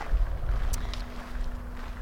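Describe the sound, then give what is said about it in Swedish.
A car approaches outdoors on a farm, its engine rumbling steadily, a low droning hum with a faint tonal whine, while gusty wind buffets the microphone. No one speaks. “nu kommer det någon bil här.”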